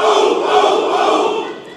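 A crowd shouts a chant in unison, many voices merging into one loud, sustained roar that holds steady for over a second before tapering off slightly.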